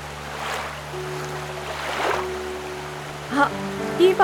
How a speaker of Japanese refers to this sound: どうしようこのままだと滝に落ちちゃうそうだボートをこいであそこの浜辺へ行こう